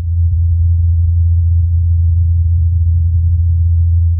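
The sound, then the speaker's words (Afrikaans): A steady, low-pitched droning hum from the rotors of a helicopter flying on Mars holds constant for several seconds, smooth and unbroken, with no voices or other sounds around it. “This is the sound of a helicopter flying on Mars.”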